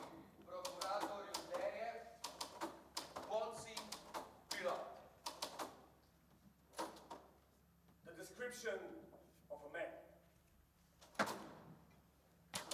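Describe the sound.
Typewriters clatter in quick, irregular bursts of sharp keystroke clicks, loud, while voices murmur underneath throughout.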